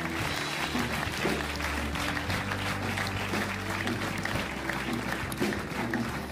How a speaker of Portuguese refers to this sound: Será que podemos dar uma grande salva de palmas a estas pessoas nesta manhã?